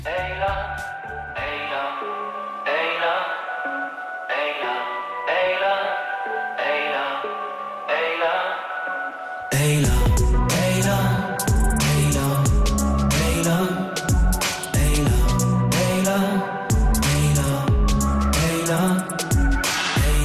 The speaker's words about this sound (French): Le combo vient de sortir son premier EP intitulé …. On écoute tout de suite un petit extrait.